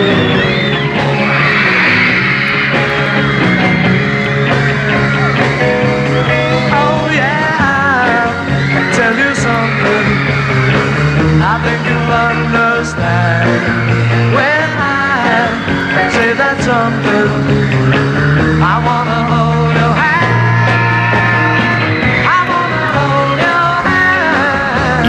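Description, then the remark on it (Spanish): A loud, continuous wall of high-pitched screaming from a large crowd of young fans, especially young women, shrill and sustained throughout, with music faintly buried underneath the din, during a British band's first US television appearance on The Ed Sullivan Show in 1964. “esos gritos de la juventud, especialmente de, las jóvenes, de las jóvenes”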